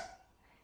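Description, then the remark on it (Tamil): A short, breathy 'achoo'-like burst from a voice imitating a sneeze from someone hiding inside a wardrobe, sharp at the start and quickly fading into quiet. “என்று அலமாரி தும்மியது”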